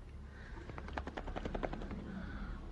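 A lid is pulled off a jar to release a butterfly, a quick, rattling burst of small clicks and scrapes, fairly quiet, lasting about a second against a low background hum.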